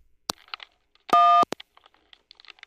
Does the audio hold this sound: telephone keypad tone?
yes